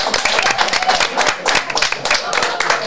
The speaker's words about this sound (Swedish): Tack är det värt en applåd till och med? Ja, det är det. Ja, från oss i alla fall.